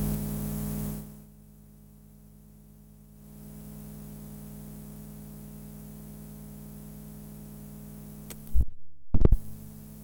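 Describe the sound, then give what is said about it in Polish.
A tape deck hums steadily with a low mechanical drone, then near the end a few sharp clunks sound as its rewind key is pressed down. “Nie, to było proszę Państwa wciśnięcie przewijania.”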